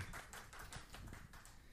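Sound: applause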